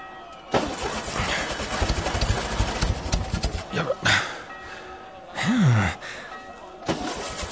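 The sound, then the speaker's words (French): A car engine cranks with a rough, sputtering churn for several seconds but never catches as someone tries to drive off, followed by a couple of short mechanical bursts and an exasperated sigh from the annoyed driver. “Quelqu'un était sur le point de partir en voiture, mais celle-ci n'a pas démarré et cela énerve évidemment le conducteur.”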